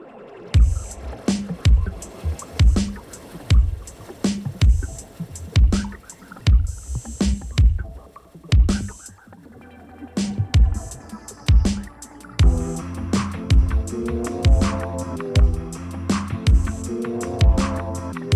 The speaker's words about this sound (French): Bref, euh, tout de suite, une petite pause musicale.